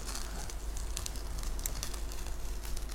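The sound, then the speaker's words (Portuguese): Soft, steady crackling and sizzling of a chouriço sausage burning, with scattered sharp pops over a continuous low hiss, fairly quiet, with no voices. “Isto ainda está a queimar aqui. Ó oh, oh, técnico, ouve-se o, cre o crepitar?”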